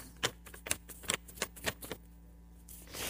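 A handful of crisp snips and rustles as an ordinary sheet of paper is cut in half and the halves are stacked, repeatedly, in an uneven rhythm over about two seconds before fading into quiet.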